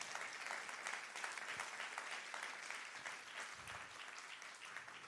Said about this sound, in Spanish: Vamos a darle un aplauso al Señor Jesús.